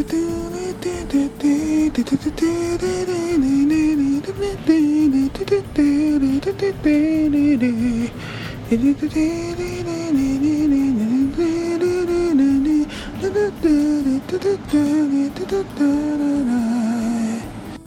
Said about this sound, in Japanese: 今回は第1弾としましてですね、私の鼻歌から入りたいと思います。えー、若干短いんですけども、こちらでございます。聴いていただきます。どうぞ。